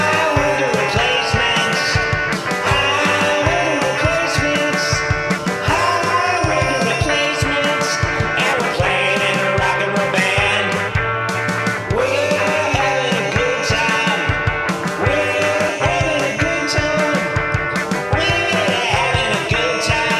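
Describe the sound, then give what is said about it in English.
A loud, messy rock band plays a driving cover song with crashing drums, distorted guitars and shouted vocals, all smeared in heavy echo and a rough, lo-fi recording quality. “Sounds like it was recorded in the back of a candy van. Super echoey.”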